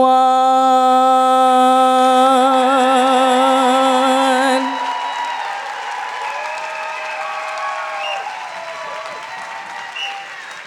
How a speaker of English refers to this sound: That was beautiful. I think maybe we should get one more round of applause for that beautiful performance. Really shows how talented our youth can be.